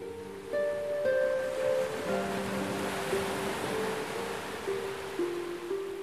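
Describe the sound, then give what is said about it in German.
Gentle waves of a turquoise sea wash softly and steadily onto a black-sand beach in a continuous hush, with calm, sustained musical tones humming quietly underneath. “Du stehst an einem Strand und beobachtest, wie die Wellen des türkisfarbenen Meeres sanft über den schwarzen Sand schwappen.”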